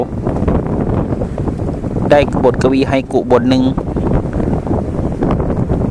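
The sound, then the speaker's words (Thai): Steady, gusty wind blowing across the mountaintop at Wat Tham Khao Phra rushes and buffets the microphone throughout, a continuous low roar, with a voice speaking briefly over it in the middle. “นั่งอยู่บนยอดเขา วัดถ้ำเขาพระบรรยากาศสุดยอดเยี่ยมมาก สายลมพัดผ่านขุนเขา”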